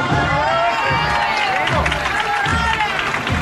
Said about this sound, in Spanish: entre los aplausos de, los vecinos del barrio, que no dejan pasar ninguna oportunidad para aplaudir a, a, su Jesús cautivo.